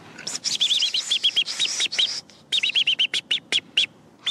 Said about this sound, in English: Michael is teaching Emily about the importance of the robin's distress call